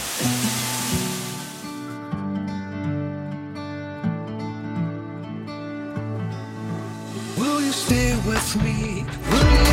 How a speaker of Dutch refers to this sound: Oh, die regen, jongens. Die regen.